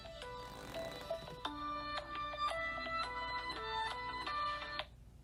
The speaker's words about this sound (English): uh-oh i forgot to silence my phone hang on